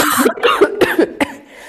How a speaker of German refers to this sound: Ja, ich mal kurz husten. Ja.